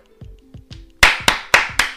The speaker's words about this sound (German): Wow, Applaus.